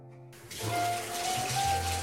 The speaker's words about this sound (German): dreh mal den Wasserhahn auf von der Badewanne.